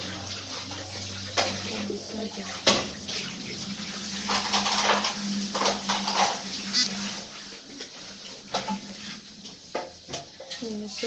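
Water runs steadily from a tap in a continuous rushing stream, with a few sharp knocks and splashes breaking through, and a low hum underneath.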